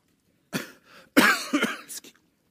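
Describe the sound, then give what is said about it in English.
A harsh hacking cough from a sick person with congestion in the lungs comes in a few rough bursts, with a wet throat-clearing rasp between them, and no talking. “Well, Monday, sorry, Tuesday, I woke up and I had a really hacking cough. Some of that you can hear.”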